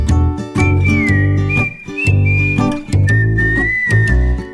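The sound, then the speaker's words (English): A clear, loud whistled melody glides over steady instrumental backing with a driving beat, the tune rising and holding long notes across a few seconds; no one speaks. “I know a boy who keeps on whistling.”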